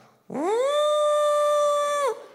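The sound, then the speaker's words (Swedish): A voice imitates a shofar ram's horn blast: one loud, sustained tone that swoops upward, holds steady for nearly two seconds, then dips briefly as it cuts off. “Alltså det lät så, har ni sett shofar? Googla shofar.”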